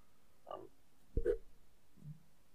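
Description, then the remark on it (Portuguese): A brief, low, throaty burp, picked up by a microphone as someone arrives at their apartment building, stands out over quiet background, framed by a couple of softer grunting sounds just before and after it. “Nesse momento eu dei um breve arroto e saiu no microfone.”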